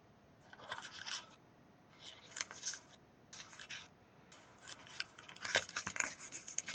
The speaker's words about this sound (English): can you guys hear me we're hearing you but we're also hearing paper crinkle